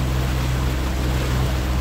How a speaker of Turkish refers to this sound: Ben denizin üzerinde bir bottayım.